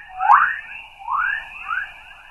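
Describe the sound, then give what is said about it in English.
Magnetospheric chorus radio waves, created by charged particles where Earth's magnetic field meets the solar wind and captured by NASA satellites, rendered as sound: three eerie rising chirps, like whistling birds, sweep upward one after another over a faint hiss, with no voices. “And it turns out that a lot of those charged particles create radio waves that can be captured and turned into sound.”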